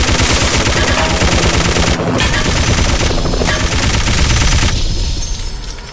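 Rapid, continuous video game machine gun fire rattles loudly for several seconds, dense bursts of shots layered over rumbling explosions and a busy game soundscape, with no talking.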